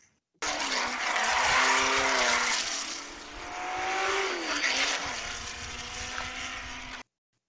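Racing car engines from the film Ford v Ferrari roar loudly and continuously for about seven seconds, their pitch rising, dipping and climbing again as they rev through gears, with a harsh, buzzing mechanical tone and no voices.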